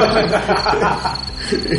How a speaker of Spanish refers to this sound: Los grillos, metemos aquí los grillos, que ahora estamos los grillos.